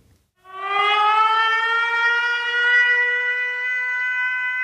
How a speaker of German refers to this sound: Das ist eine Sirenenalarm-App mhm. und ähm, die klingt so. Warte mal, ich habe hier das Handy, dann kann ich es dir einfach direkt zeigen.